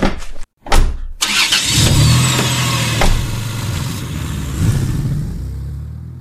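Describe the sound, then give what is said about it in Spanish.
A car engine cranks with a few sharp bursts, catches, then roars steadily as the vehicle pulls away, its low hum holding loud for several seconds with occasional surges. “Vamos, suban a mi vehículo.”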